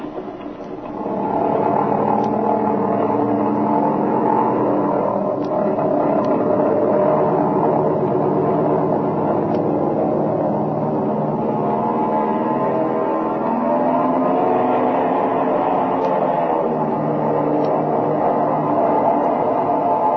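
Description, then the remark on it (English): A propeller airplane engine roars steadily and loudly throughout, a dense droning hum with shifting harmonic tones as power holds during takeoff, with no voices present. “And remember to keep on a little right rudder to allow for engine torque. Otherwise, you'll pull over to the left.”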